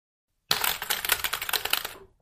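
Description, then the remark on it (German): Rapid, dense clicking of keys on a recently bought mechanical keyboard, fairly loud, a steady burst of clacky keystrokes lasting about a second and a half with no voices. “Ja, da habe ich vor kurzem eine mechanische Tastatur geholt.”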